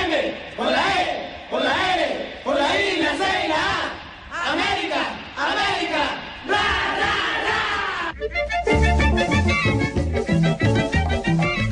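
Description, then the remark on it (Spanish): A large crowd of América de Cali football fans chants the club's traditional team song in loud unison, rhythmic phrases rising and falling, before instrumental music takes over for the final few seconds. “Si hay una hinchada que siente su equipo, si hay una hinchada que siente a sus ídolos.”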